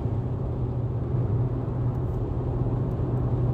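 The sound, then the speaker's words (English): Steady, dense engine rumble fills the air, a continuous low roar of motors at a motorcycle rally in Tampa, fairly loud and unbroken, with no clear voices. “So Friday, play the show, arrive in Tampa like 11 o'clock, in the morning, in the moving truck, parking at Firefighting Cowboys, run through the shower, change clothes, go to this motorcycle rally.”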